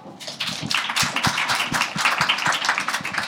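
A crowd applauds steadily at the close of a discussion event, dense overlapping claps forming a sustained, fairly loud wash of sound with a few sharper individual claps standing out, no voices on top.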